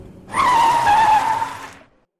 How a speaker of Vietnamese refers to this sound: Xe đột ngột phanh gấp khiến người tôi nghiêng về phía trước, đập vào phần trước ghế.